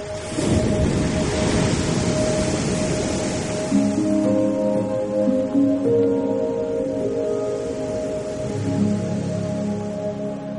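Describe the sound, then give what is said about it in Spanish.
Sea waves crash on the shore at Nazaret in a steady, loud roar of rushing water, with a low droning hum running underneath through the second half. No one speaks. “Si hay un sonido que destaca por encima del resto en Nazaret es el sonido del mar.”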